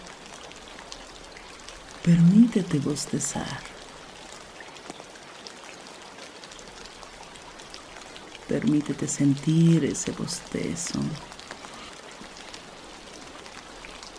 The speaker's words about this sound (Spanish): Afuera llueve. El clima comienza a cambiar.